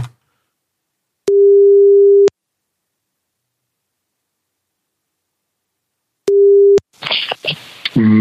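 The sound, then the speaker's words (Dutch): Ringback tone on an outgoing phone call to the publisher Querido: a steady mid-pitched beep lasting about a second, a long silence, then a second shorter beep cut off as the call connects and a voice answers. “Ik ga eens even kijken of we eh, de uitgever al kunnen bellen.”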